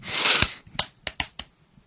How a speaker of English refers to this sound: What is that? Are you snapping at me? I'm clapping my hands. Are you Are you sure a, you're clapping your hands?